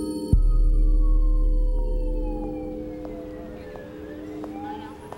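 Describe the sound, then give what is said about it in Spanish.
Emergency vehicle sirens wail steadily, their sustained tones gliding slowly downward over a constant low rumble of traffic, moderately loud throughout. “El delicioso aroma del café por las mañanas va también con el sonido de las sirenas.”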